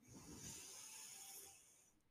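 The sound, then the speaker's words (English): A deep breath drawn in through the nose during a guided meditation, a soft, airy hiss that swells and holds for about two seconds before tapering off. It sounds quiet, with no talking. “Taking a deep inhale, breathing in through your nose.”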